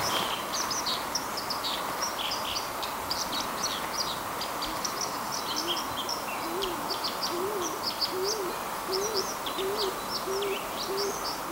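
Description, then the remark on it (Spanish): A Eurasian collared dove coos in the background, a run of soft, evenly spaced low notes, over the steady rushing water of a waterfall and scattered high bird chirps. “Oímos de fondo también a una tórtola. Es, una tórtola. una tórtola turca, me parece que era.”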